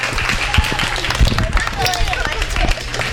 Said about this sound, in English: Let's have a round of applause for a great comment.